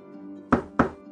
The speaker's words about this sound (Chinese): 然后方墨开始敲门。